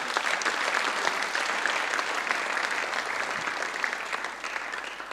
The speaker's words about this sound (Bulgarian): Аз мисля, че заслужава да ръкопляскаме на Бога за това също.